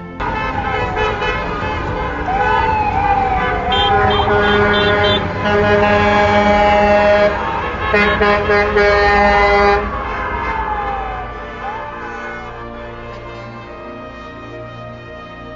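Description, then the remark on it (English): A dense chorus of car horns from residents lined up bumper to bumper on Davis Street outside South Lake Regional Hospital in Newmarket, Ontario, Canada, on a Thursday afternoon, thanking hospital staff; overlapping, sustained honks, with a siren wailing through the middle, loud and continuous before tapering somewhat; a brief laugh. “residents in Newmarket, Ontario, Canada, lined up on Davis Street to give props to the Thames hospital staff, bumper to bumper honking outside South Lake Regional Hospital Thursday afternoon.”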